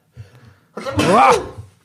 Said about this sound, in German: du musst gleich niesen. Ja.